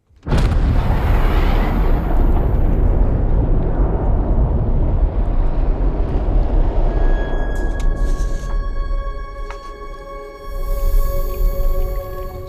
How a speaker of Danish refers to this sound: Det er så anden gang i dag, vi springer en atombombe yeah. i radioen. Bang! Bang! Der er meget atomtema i dag, yeah.